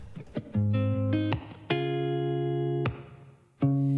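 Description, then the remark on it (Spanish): A song opens with loud, sustained electronic synth chords, a few short notes and then long held chords separated by brief breaks, with no voices yet. “Vámonos con música a esta hora de la noche, mis queridos converos.”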